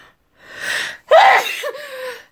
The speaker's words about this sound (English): I'm I feel a sneeze coming on, so if I sneeze,